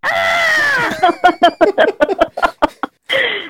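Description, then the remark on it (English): A person mimics a dog crying: a long, wavering whine that slides downward, then a quick run of sobbing yelps and a final short whimper, loud. “what it sounds like when dogs cry.”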